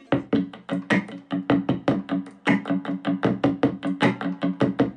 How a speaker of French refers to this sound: Ça, c'est aussi une guitare dont la caisse de résonance est faite de canettes de bière, collées les unes aux autres.